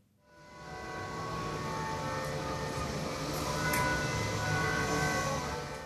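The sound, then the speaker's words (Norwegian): Carillon bells from the Oslo City Hall tower in Norway ring continuously, their overlapping tones blending into a dense, sustained wash of metallic ringing that swells in and holds steady, with no voices present. “Slik er vi vant til å høre klokkene i Oslo rådhus.”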